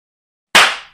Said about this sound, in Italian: Uno schiaffo violentissimo mi fece quasi cadere dalla sedia.